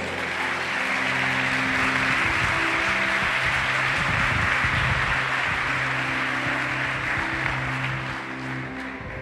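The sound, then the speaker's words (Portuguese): An audience claps steadily for several seconds for the Almighty, a dense, continuous wash of applause with a faint low hum beneath it, easing off slightly near the end. “Você pode aplaudir ao Todo-Poderoso?”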